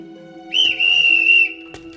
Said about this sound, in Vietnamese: Một viên cảnh sát giao thông từ đâu xuất hiện, thổi còi inh ỏi. Nghe tiếng còi, con la lại càng chạy điên cuồng.